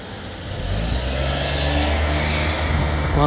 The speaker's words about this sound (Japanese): 車が来ました